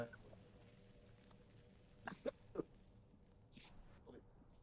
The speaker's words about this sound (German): äh, Gesundheit.